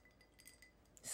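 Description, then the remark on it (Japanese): Ice cubes clink lightly against a glass of ice water in a few quick taps, ending in a brighter rattle as the glass is moved or tilted. No one speaks. “氷の音聞こえますか”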